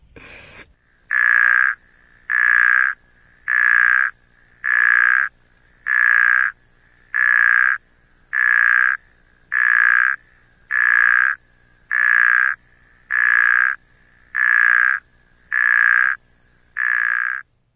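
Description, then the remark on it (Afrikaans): A snoring puddle frog (Phrynobatrachus natalensis) calls repeatedly, about thirteen loud, rasping snore-like croaks evenly spaced around a second apart, with no talking. “Dis die roep daarvan die snork modderpadda.”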